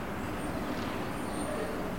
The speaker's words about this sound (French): Des camions et des voitures.